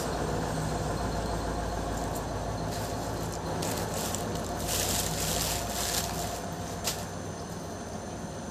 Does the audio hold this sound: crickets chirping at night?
no